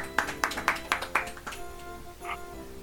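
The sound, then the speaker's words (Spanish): A short burst of applause welcoming the guest of the day: about six sharp, evenly spaced claps in a quick steady rhythm, fading out after a second and a half over a soft, steady tonal background. “Vamos a darle un aplauso muy fuerte y la más cordial bienvenida.”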